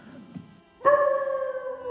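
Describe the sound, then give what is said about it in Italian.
After a moment of near silence, a dog lets out a single long, steady howl that holds for over a second and sags slightly in pitch near the end, loud. “A capitano venne allora in mente di aver sentito abbaiare nella vecchia casa dei Demon.”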